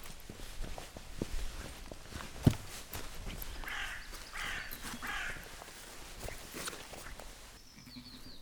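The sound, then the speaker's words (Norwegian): A couple of crows land in a tree on a farm and caw, harsh calls spaced out over several seconds, with footsteps crunching along outdoors underneath, on a sunny day. “par kråker lander i et tre og kommenterer det som skjer på gården.”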